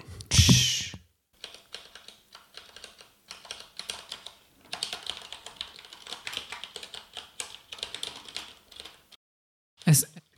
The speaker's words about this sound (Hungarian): kicsit olyan gépír, gép, írógép érzésem van tőle. E, igen, az MX Brown nevű kapcsoló van benne, ami e, nem ad nem ad hang, hang visszajelzést, hanem csak, csak taktilis pontja van, szóval érezni egy ilyen kis e, ugrást